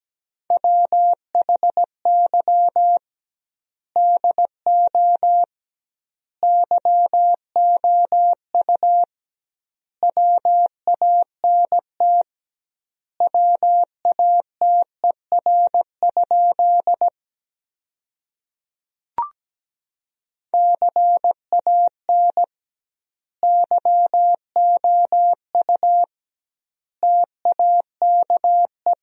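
Morse code beeps at a steady 17 words per minute, sending practice sentences built from the top 200 words with double word spacing: a single mid-pitched tone keying short dots and longer dashes in clustered bursts with noticeably wide gaps between words, plus one sharp click midway.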